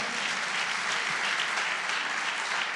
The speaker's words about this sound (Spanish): Si ustedes lo creen, dale un aplauso fuerte, Señor.